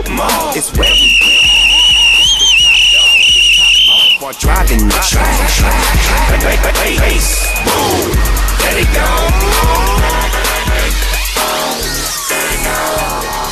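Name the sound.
whistle blown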